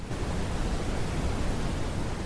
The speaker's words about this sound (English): So, the sound therapy idea is that if we flood the brain with a broad band of sound, like a white noise, pink noise, broadband sound, if we flood the auditory system and brain with this kind of a sea of noise